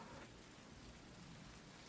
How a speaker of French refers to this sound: Il y a cette affiche qui trotte et l'ambiance entre la pluie, les éclairs